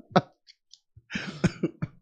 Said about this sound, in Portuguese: até tossindo aqui.